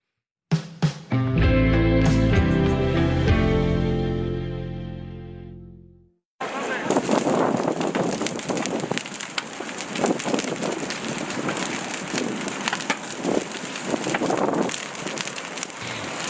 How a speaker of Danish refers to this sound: Det, man kan høre her i baggrunden, det er noget af det, der har antændt behovet for øh, en mere akut plan. Det er branden i Moria, som skete for et par uger siden øh, på Lesbos i Grækenland.